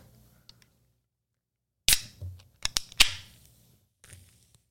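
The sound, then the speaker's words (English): A drink can pops open with a sharp metallic crack, followed by a few quick snaps and a short burst of hissing fizz that fades. No one speaks. “You even got a bit of the fizz.”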